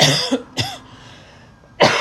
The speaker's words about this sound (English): excuse me. I'm so sorry. That's probably so off putting to hear somebody coughing in your ears. I'm so sorry. Jesus Christ. It's a one to start and then it's be a whole chain.